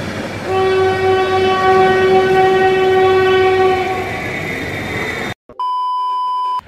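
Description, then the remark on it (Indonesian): A train rumbles past behind a studio, sounding a long, loud horn blast over the steady roar, then cuts abruptly to a steady electronic beeping tone. “Lu bisa lihat ada kereta lewat di, di belakang.”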